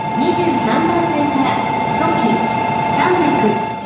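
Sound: train running on rails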